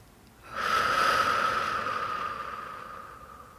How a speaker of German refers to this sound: Und dann möchte ich dich dazu einladen, dass du einmal ganz, ganz tief mit mir gemeinsam einatmest. Und wir atmen wieder aus.